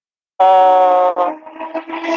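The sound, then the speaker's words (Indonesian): A motorbike ridden by a young biker passes, opening with a loud, steady, buzzy blare lasting under a second, then breaking into a rougher, fluctuating engine-like rumble. No one speaks. “iku mau no suara Rossi ta sing lewat iku Cuk iku suara iku anak motor ya motor”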